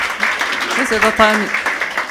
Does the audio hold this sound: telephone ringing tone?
no